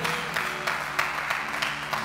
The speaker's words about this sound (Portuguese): É, dá mais um aplauso a Jesus aí.